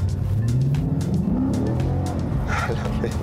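A car engine revs up loudly, its pitch climbing steadily as it accelerates, then holding a rough, throaty roar with a brief hiss near the end.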